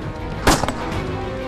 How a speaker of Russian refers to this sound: В этот миг один из грабителей открыл стрельбу.